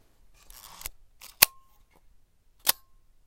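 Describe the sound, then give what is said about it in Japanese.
A Leica film camera's advance lever ratchets with a short mechanical whir as the film is wound, followed by two sharp shutter clicks spaced about a second apart, with no voices. “ちょっとシャッターの音シャッターっていうかねこれとこんな感じですねフィルムを巻く音とカシャンっていうのがシャッターが切れる音なんですけどもう一回やりますね”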